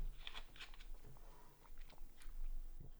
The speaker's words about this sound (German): Entschuldigung, ich hatte gerade Wasser im Mund.